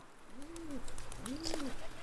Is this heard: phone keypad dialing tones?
no